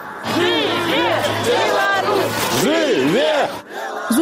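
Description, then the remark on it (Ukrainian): A crowd of many voices loudly chants slogans banned in their homeland in unison at a Sunday-noon rally on Maidan Nezalezhnosti in Kyiv, lined up along Khreshchatyk with placards of political prisoners and white-red-white flags; rising and falling shouted phrases overlap continuously and briefly pause near the end. “Неділя полудень на майдан незалежності вони збираються щотижня із плакатами політв'язнів та біло-червоно-білими прапорами, шикуються шеренгою здовж хрещатики і скандують заборонені на батьківщині гасла.”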